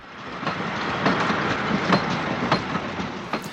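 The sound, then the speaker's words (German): A train rolls past on the Osnabrück–Münster railway line, its steady rumble broken by regular clickety-clack beats from the wheels crossing rail joints, loud, with no voices. “Auch heute noch fahren da viele Züge und genau dort begann die Geschichte des Geisterzugs.”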